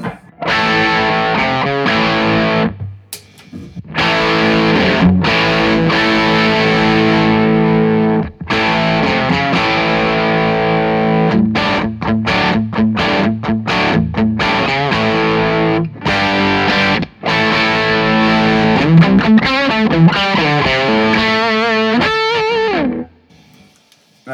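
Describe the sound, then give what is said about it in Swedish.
Heavily distorted electric guitar played through a Marshall amplifier, loud chords and riffs ringing out for over twenty seconds with a few short breaks between phrases and no talking. “Eh, nu kör vi bara Marshall först då.”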